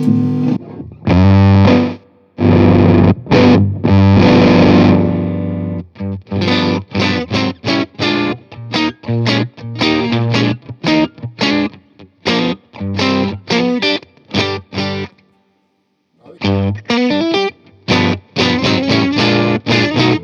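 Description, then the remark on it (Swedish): Loud, buzzy electric guitar through a germanium transistor fuzz distortion effect, playing choppy chords and short stabs, with brief gaps of silence between phrases; thick, saturated tone. “Och där, det var eh, Germinio. Eh, Germanium.”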